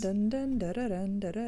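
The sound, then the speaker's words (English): A single voice sings a short, bouncy melody on repeated nonsense syllables, imitating the theme tune of the Zoombinis video game, fairly loud with the pitch rising and falling between notes. “That was the little Zumbini song, by the way.”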